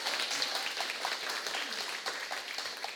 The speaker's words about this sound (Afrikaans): Kan ons dalk net die aanbiddingspan so 'n hande klap gee?